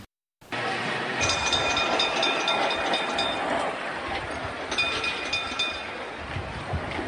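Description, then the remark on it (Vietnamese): A Hanoi tram's bell clangs in two bursts of rapid, ringing strikes over the steady rumble and rattle of a rail car rolling by. “có nhiều âm thanh của Hà Nội luôn luôn thao thức trong hoài niệm của nhiều người trong đó có tiếng leng keng của tàu điện và những tiếng giao đêm.”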